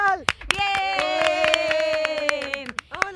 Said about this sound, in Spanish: Vamos a darle un aplauso gigante, con muchísimo cariño